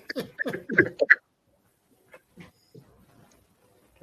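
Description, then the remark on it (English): A small puppy lets out a quick burst of high yips and whimpers, followed by a few faint, scattered little noises and near silence. “a little puppy.”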